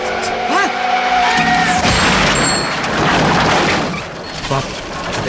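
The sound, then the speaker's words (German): Tires squeal with a rising whine, then a loud car crash explodes, glass shattering and tinkling high over a rumbling, noisy aftermath that slowly fades. “Was mir auch gut gefallen hat, war die Umsetzung von Bobs Unfall.”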